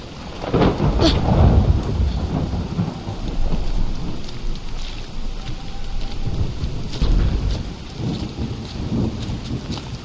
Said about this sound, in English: Now, which dreamer would be in some spooky woods at night? in the rain, with a lone cabin and no lights on.